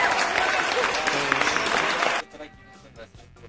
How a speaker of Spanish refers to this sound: Ellos son los señores de …. ¡Aplausos! ¡Aplauso!